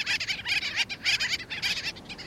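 Gull-billed tern calls: a rapid series of harsh, raspy, nasal notes in short clustered bursts, fairly loud, with no other sounds around them.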